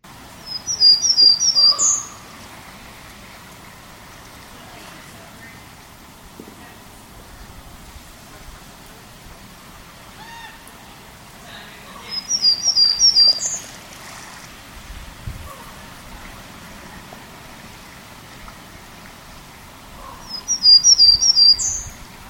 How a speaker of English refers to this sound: So I did record a, another um, variant, I guess I should say, of uh, Townsend's Warbler in Totem Park a while back, and so I'll play this other variant just to give you a sense of some of the variation that there might be in Townsend's Warblers.